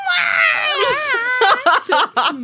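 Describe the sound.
A voice imitates a rooster crowing with one long, loud, strained call that wavers in pitch, followed by a few short choppy vocal bursts.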